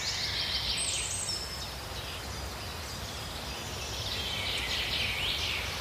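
A dense chorus of birds chirps and twitters continuously from many directions in the trees around a small clearing beside two benches, layered over a steady rustling outdoor background with no one speaking.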